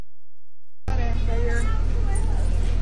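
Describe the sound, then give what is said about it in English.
After a moment of silence, a school bus engine rumbles in steadily, a low continuous drone, with a jumble of voices chattering over it as a boy races the bus while his classmates cheer. “He's racing the school bus every day to the cheers of his classmates.”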